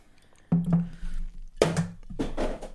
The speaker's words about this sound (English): It's ambient sounds. It's ice in a glass. It's fine.